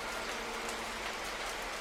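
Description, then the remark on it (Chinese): Rain falls in a steady, even hiss that fills the whole clip, with faint patter mixed in and no voices or other sounds on top. “今天下雨了”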